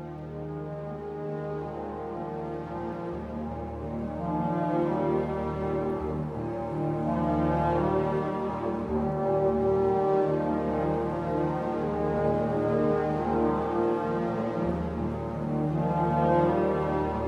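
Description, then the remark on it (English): Dark, brooding film score music with low, sustained droning tones and layered harmonies swelling slightly midway, playing steadily and moderately loud with no one talking. “let's listen to a little music from Dead Ringers”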